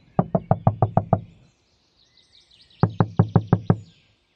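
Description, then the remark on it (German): Two quick bursts of knocking, about six sharp raps each, separated by a short pause, striking a car's passenger door, with faint birdsong in the background. “Er nickte erneut ein und erwachte schlagartig, als jemand gegen die Beifahrertür klopfte.”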